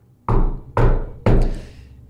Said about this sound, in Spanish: Una noche después, los toquidos de la puerta volvieron, pero más violentos.